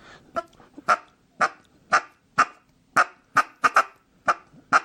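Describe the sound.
A duck call blown in a series of about a dozen short, spaced clucks, evenly paced like a feeding duck, clear with no talking.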